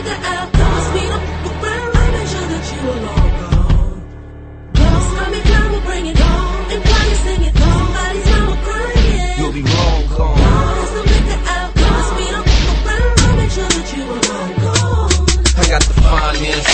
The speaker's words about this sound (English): now listen to the hardest DJ in North Carolina